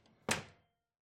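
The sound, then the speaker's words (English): A door is slowly eased shut and settles with a single dull thunk that fades quickly into silence. Moderately loud, with no voices. “I slowly close the door.”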